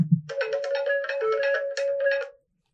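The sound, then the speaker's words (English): A phone rings with a bright electronic ringtone, a quick run of melodic beeping pulses lasting about two seconds after a soft low thump, then cutting off into silence. “Detective Astrid was shuffling through her file drawer when her phone rang.”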